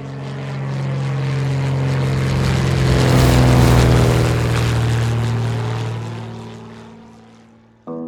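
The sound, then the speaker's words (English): A propeller airplane drones past overhead, its engine hum swelling to a loud peak midway and then fading away, with the pitch bending downward as it passes. No voices. “Let's get on the plane. It's going to be a quick ride.”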